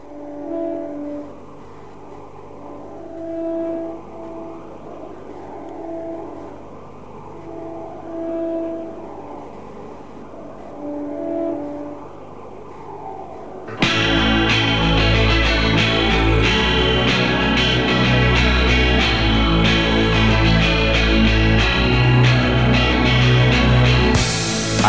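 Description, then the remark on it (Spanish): A clean, chorus-tinged electric guitar plays a short melodic riff that repeats in a steady rhythm, then a loud full band with drums bursts in partway through and carries on. “Arranco así, hablando a secas, pero solamente porque quiero que presten atención a este simple pero hermoso riff de guitarra.”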